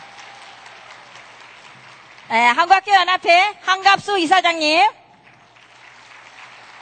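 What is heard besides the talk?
audience applause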